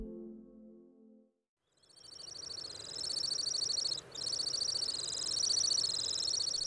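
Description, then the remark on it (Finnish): A Temminck's stint, a bird species that nests in Finland, gives a long, high, rapid trill that runs for several seconds, pausing only briefly, loud, after a short low tone at the start. “Lapin kirvinen, Lapin pöllö, Lapin sirkku, Lapin sirri, Lapin tiainen, Lapin tiira ja Lapin uunilintu.”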